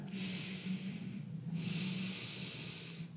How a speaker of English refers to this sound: You can inhale up, inhale a bit more. You bring them back, and then exhale.